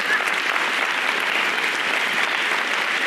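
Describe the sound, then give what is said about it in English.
An audience applauds steadily for a few seconds, a dense, even wash of many hands clapping at once with no individual claps standing out and no voices above it. “So, with that, and by the way, yes, you can clap,”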